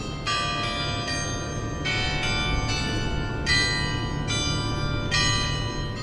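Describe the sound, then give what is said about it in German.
The carillon of the thousand-year-old Perlach Tower in Augsburg, Germany, chimes a slow sequence of bright, ringing bell notes, each strike overlapping the lingering resonance of the last, over steady outdoor background noise. “Das Glockenspiel vom 1000-jährigen Perlachturm.”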